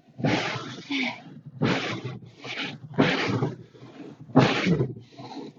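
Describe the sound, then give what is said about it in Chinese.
Car windshield wipers scraping snow off a snow-covered car in a steady back-and-forth rhythm, about five loud, rough strokes with a groaning, strained edge, heard alone without talk. “这是那个雨刷器在刮雪的声音。”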